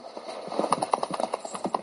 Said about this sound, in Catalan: I sense dir res més, muntà sobre el seu cavall i desaparegué enmig de la foscor.